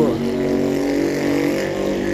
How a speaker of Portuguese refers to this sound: Motoqueiro filho da puta, hein? Nossa, como eu odeio barulho de moto.